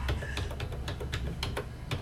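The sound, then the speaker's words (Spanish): Quick keystrokes tapped on a numeric keypad, about eight or nine sharp clicks in an uneven rhythm, fairly quiet, as an ID number (RUN) without dots but with hyphen and check digit is entered into a login form. No talking. “Entonces activo el teclado numérico. Activado. Coloco mi root.”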